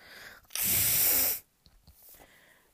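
A single loud, hissy nose blow by Professor McGonagall lasting under a second, with a brief rough rasp, followed by quiet room noise.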